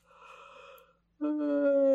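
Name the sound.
voice imitating a yawn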